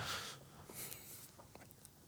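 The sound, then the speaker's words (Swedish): Soft chewing on a muffin, with irregular wet mouth clicks and smacks and faint breathing, no talking. “Ska du svälja muffen”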